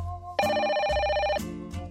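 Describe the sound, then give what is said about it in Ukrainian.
A telephone rings once in a loud, buzzy, warbling burst lasting about a second, framed by softer tonal sounds before and after. No one speaks. “Молода людина телефонує на радіо.”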